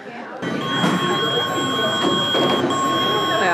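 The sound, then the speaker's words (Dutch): A security scanner gate at the security check of the Dutch House of Representatives gives off a loud, continuous electronic beep that starts abruptly and keeps sounding steadily over a busy, noisy background. “Hij piept heel hard.”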